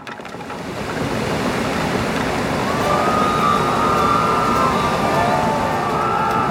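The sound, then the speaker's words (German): A loud, rushing roar of churning water swells in over the first second, then holds steady, as a two-masted caravel is launched into a harbor basin, throwing displaced water meters high over the harbor wall. Faint whistling tones drift through the noise partway along. “Mit einem ohrenbetäubenden Rauschen wurde die zweimastige Karawelle ins Hafenbecken gelassen und spritzte das verdrängte Wasser meterhoch über die Hafenmauer.”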